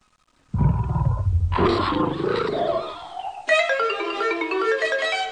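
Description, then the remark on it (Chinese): A loud, deep tiger roar bursts in after a brief silence, rough and growling, then gives way to a second drawn-out, strongly tonal roar that holds to the end. No one speaks. “老虎钻不进去，在外面急得暴跳如雷。”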